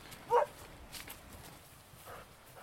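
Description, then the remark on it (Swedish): A dog barks once in the distance, sharp but faint, followed by a quieter answering bark a couple of seconds later over a hushed outdoor background. “Han bryr sig inte om att hundar skäller eller någonting.”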